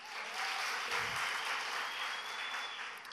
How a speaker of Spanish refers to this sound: Y ahí va un aplauso.